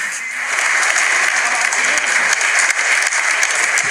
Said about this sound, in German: Und wenn der Jubel nicht genau. groß genug ist, dann hilft er persönlich nach.